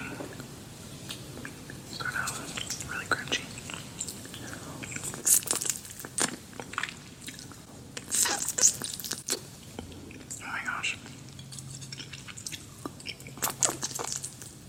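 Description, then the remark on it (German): Crunching and chewing of crispy chicken skin, with repeated sharp crackly bites and wet mouth sounds, quiet throughout. No speech, just steady munching throughout. “Hähnchenhaut.”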